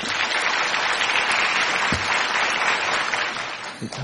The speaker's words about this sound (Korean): 박수로 맞아주십시오.